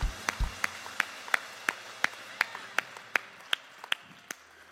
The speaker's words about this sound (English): Can we give the Lord a hand clap of praise today, FC?